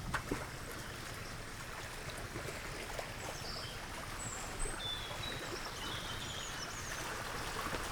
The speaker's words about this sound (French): Euh, on a tout d'abord l'écoulement de l'eau, qui est le moteur du moulin.